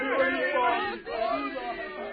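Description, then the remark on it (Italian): A crowd of many voices shouts and cheers together in a steady, festive roar, celebrating the defeat of pirates, loud, with a brief dip before the cheering swells again. “Sentire la folla che gridare festosamente per avere voi sconfitto pirati”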